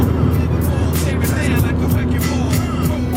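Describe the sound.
A car drives along a road back to Prague, its engine and tires making a steady, loud low rumble with a constant hum, and faint murmuring voices underneath.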